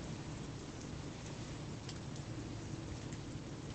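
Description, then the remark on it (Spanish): Steady rain pours down in autumn beyond a fence, in a continuous, dense hiss with a low rumbling undertone, holding an even loudness throughout with no voices or breaks. “Hay aquí, tras, tras una verja y bajo, bajo esta, esta lluvia”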